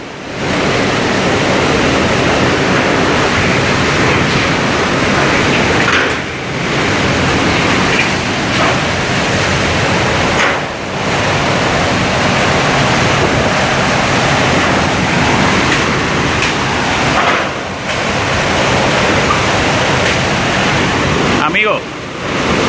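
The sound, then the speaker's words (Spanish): Hurricane Maria's winds roar over Puerto Rico in a loud, unbroken rush of storm noise, surging steadily with a few brief momentary lulls before the howling gusts return at full force. “Esperando que hayan tenido la oportunidad de escuchar y tener una experiencia sonora, una experiencia como la que estoy teniendo yo, del paso de un huracán poderoso como lo es el huracán María por Puerto Rico”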